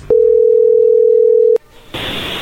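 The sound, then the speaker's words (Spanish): A loud, steady telephone dial tone as a phone call is being placed holds one low-mid pitch for about a second and a half, then cuts off with a click, followed by a bed of line hiss and static. “A ver, vamos a llamarle a ver qué sucede”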